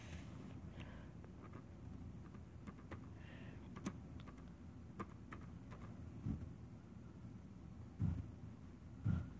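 Irregular bursts of quick keyboard typing as someone types a search into Google, light clicks tapping away over a low steady rumble, with a couple of heavier thumps near the end and no one talking.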